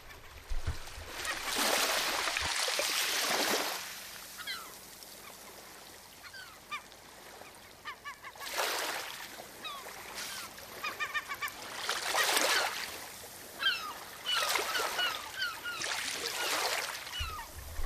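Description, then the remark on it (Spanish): Seagulls call repeatedly in short, squawking bursts over the rhythmic wash of waves surging and breaking, the surf swelling loud every few seconds while the birds cry. “y con el fondo de las gaviotas de la música que nos acompaña hoy de Johann Sebastian Bach.”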